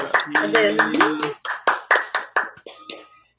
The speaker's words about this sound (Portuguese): Agora eu vou aplaudir. Vamos aplaudir, né?